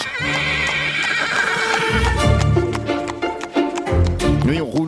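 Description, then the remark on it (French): A horse pulling a wooden caravan along small country roads in the Morbihan whinnies loudly while hooves clip-clop steadily underneath, a continuous rhythmic clatter running the whole time with faint voices in the background. “je vous propose là de louer une roulotte. pour partir en vacances ou bien en week-end euh, sur les routes du Morbihan”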